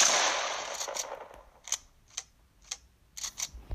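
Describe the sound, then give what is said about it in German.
A video game pump shotgun, epic variant, reloading: a broad mechanical whoosh fades out, followed by a series of sharp metallic clicks and clacks in an uneven rhythm, fairly loud, with no voices. “Äh, wie es beim Nachladen klingt, bei der epischen Variante zum Beispiel so.”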